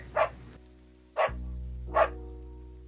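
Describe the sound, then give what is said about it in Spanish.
A dog barks three times to beg for food, each short bark separated by about a second of pause, clear over a steady low background hum. “Yo le ladré para ver si me daba algo de comida.”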